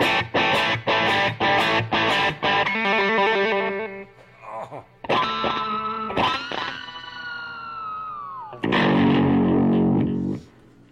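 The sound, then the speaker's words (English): Distorted electric guitar played through a Boss tap-tempo delay pedal, with sharp rhythmic strums at first, then sustained chords whose echoes repeat and trail off, ending on a loud held chord. “It's a Boss uh, tap pedal. I've got that hooked up to it”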